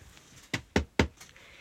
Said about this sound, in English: One of the ghosts here is that of a phantom bellboy who knocks on doors,